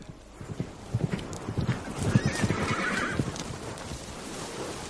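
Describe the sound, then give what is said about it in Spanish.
Hooves clop in a steady, rhythmic beat while a horse lets out a drawn-out neigh partway through, both fairly loud with no talking. “Dice que ese es su caballo.”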